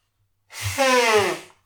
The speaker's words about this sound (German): Du willst äh, im, im Podcast deine Nase putzen. Wir können die ja kurz äh, rauskarten. Ich muss wirklich, mir läuft jetzt gerade hier den Bart runter.